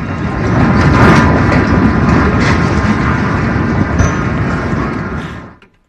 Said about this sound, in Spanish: Y ahí empieza el temblor y vamos a escuchar cómo se estremecen los cimientos del edificio.